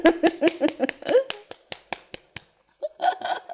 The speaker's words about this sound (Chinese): 啊、这话是不是应该鼓个掌？ 鼓掌鼓掌，听懂掌声。